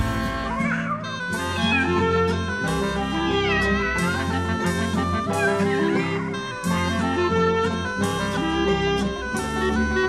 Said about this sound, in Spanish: maullando se pasean. Tiene gatos, gatos, tiene, tiene cinco, tiene veinte,